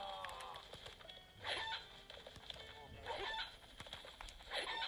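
A chicken clucks in short, repeated bursts roughly every second and a half, moderately loud, over a busy, steady background hum.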